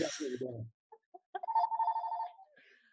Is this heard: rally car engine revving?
no